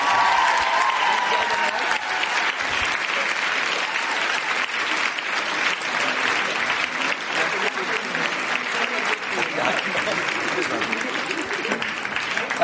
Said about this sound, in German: Ein Applaus an euch selber, es war schön mit euch, Köln.